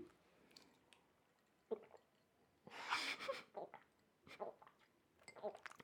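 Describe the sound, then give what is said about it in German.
Soft swallowing and wet mouth noises while someone drinks water, a few brief gulps and sips spaced irregularly, with a breathy rush in the middle, all fairly quiet. “Also vorhin hast du lauter geschluckt”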